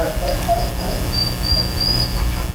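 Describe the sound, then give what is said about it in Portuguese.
A dog whines in thin, high-pitched drawn-out tones, rising and holding for a second or so, over a steady low rumble of background noise. “Ele, não ele chora que é filha da puta mesmo. Ele se ofendeu, cara.”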